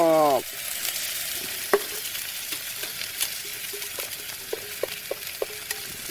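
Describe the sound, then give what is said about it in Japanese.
Ground meat and onions are stir-fried in oil and sizzle loudly in a hot frying pan on a high-heat stove, a steady hiss broken by sharp scrapes and taps of a spatula stirring every second or so. “火力がすごいさあではこのひき肉と玉ねぎほらうわいい音一瞬ですねうわすごい”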